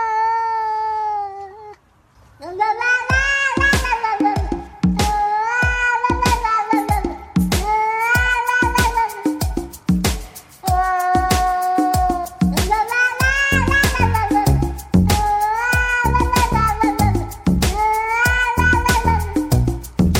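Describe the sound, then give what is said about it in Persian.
A steady, looping piece of music composed specially for cats: sliding, meow-like tones rise and fall over a rhythmic pulse of soft percussive hits, played loud with no talking. “اسم خاصی هم راستشو بخوای این قطعه نداره ما هم مینویسیم قطعه موسیقی مخصوص گربه ها”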